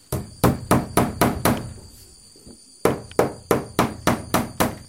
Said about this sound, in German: Der Kassike hämmert dicke Nägel in eine Holzwand, um eine große Leinwand aufzuhängen, K. 1 Meter hoch, 2 Meter breit.